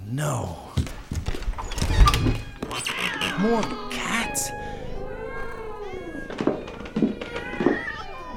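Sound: many cats meowing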